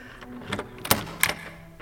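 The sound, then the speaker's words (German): A door handle is jiggled against a locked door, making three short metallic rattles and clacks in quick, uneven succession, with a low hum underneath and no voices. “Die Tür ist abgeschlossen.”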